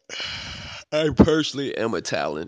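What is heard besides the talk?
yawn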